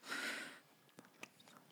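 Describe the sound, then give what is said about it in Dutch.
A breathy slurp as someone sips a thick Planet Drink meal-replacement drink, followed by a few soft wet mouth clicks and a swallow. No one speaks. “Ben je nou aan het drinken of aan het eten? Ja, het is een combinatie van beide.”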